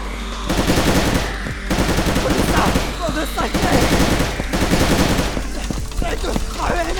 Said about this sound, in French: Il avait bien cru être perdu lorsque plusieurs nouvelles araignées, attirées par les tirs, étaient apparues derrière les carcasses encore fumantes des deux premières.